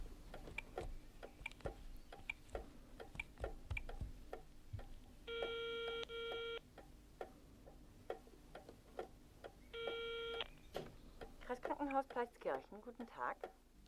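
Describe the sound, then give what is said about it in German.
A telephone rings twice through its loudspeaker during a call to a hospital, each long electronic trill separated by a pause, over a steady ticking clock, with a voice starting up right at the end. “Das Telefon hat einen Lautsprecher, ihr könnt da mithören.”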